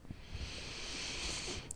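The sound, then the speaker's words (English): A slow, steady inhalation taken during a guided relaxation exercise, a soft airy hiss that swells gently over about two seconds with no talking. “Take a breathing in”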